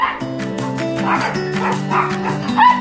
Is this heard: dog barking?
yes